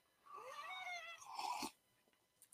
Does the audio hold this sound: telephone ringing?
no